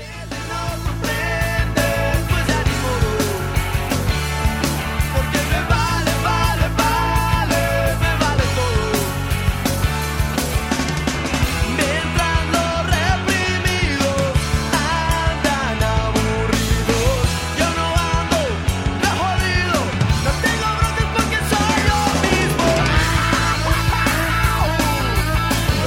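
A loud, dense rock song plays throughout, with driving drums, a steady bass line and an electric guitar carrying a soaring lead solo over the band, with no voices.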